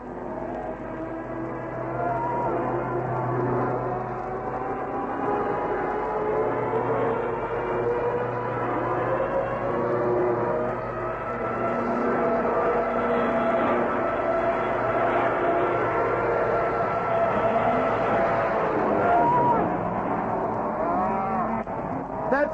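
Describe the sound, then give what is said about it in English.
A low-flying Mosquito aircraft drones steadily overhead, its deep engine hum holding a continuous, slightly wavering pitch for over twenty seconds, loud and unbroken with no voices. “Here's the mosquito in again.”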